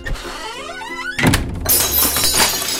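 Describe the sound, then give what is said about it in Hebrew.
Aunt Malka's plates breaking: after a brief warbling tonal sound, a heavy thud hits, then a loud, bright crash of shattering crockery clatters on for over a second. “הוא שבר את הצלחות של דודה מלכה.”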